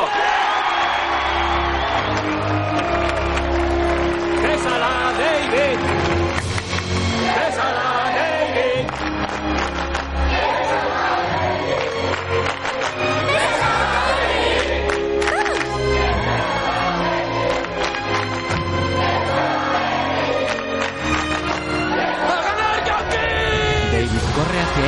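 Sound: crowd cheering and applauding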